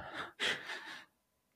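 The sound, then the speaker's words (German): A single sneeze: a breathy, rising intake followed by a sudden sharp, hissing burst that trails off over about half a second, then quiet. “Gesundheit.”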